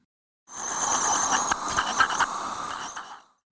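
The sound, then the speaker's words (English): A dental polisher whirs steadily for about three seconds with a bright, hissy buzz and a few small catches, fairly loud, then cuts off. “A polisher.”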